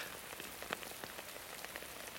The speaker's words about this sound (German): Was stehen wir da im Regen? Gehen wir doch ins Haus.